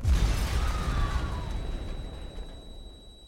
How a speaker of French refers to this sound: Ce grand boom, c'était l'attentat de la rue de Rennes. Dans ce quartier commerçant, les terroristes ont frappé peu avant 17h30